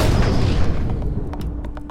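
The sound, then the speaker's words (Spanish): A loud, booming revolver gunshot rings out and rolls away in a long, rumbling echo, followed by a few faint metallic clicks as the reverberation dies down. “Las preguntas del universo las respondo a balazos.”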